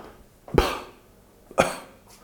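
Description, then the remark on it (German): Two short, forceful breathy exhales from a person, done instead of clearing the throat, about a second apart, fairly loud, each a sharp huff of air that quickly fades, with no talking. “ausatmen, nur so ein stärkeres Ausatmen und nicht.”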